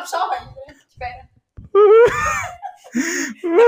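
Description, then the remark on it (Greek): Loud wailing sobs in uneven bursts, with sharp gasping breaths between them and pitch that rises and falls; the crying sounds exaggerated, as if a voice is playfully imitating it. “Τα κλάματα.”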